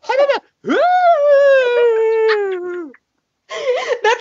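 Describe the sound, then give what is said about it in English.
A person does a vocal ghost impression, likened to Adam Sandler doing one: a long, wavering howling moan that rises and slowly trails downward, loud, with brief laughing vocal bursts before and after. “You sounded like Adam Sandler doing a ghost impression.”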